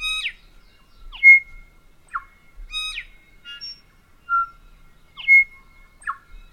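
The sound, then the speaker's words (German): A tui, a honeyeater endemic to New Zealand, calls in a varied sequence of bright, ringing notes mixed with sharp descending whistles, clicks and short buzzy chirps, loud and irregular, with no talking. “ein endemischer, also nur dort vorkommender Honigfresser, der nach Maori-Sprache benannt wurde und dieser Name bis heute eben auch in der eng sozialisierten neuseeländischen Gesellschaft bekannt ist und das ist der Tui.”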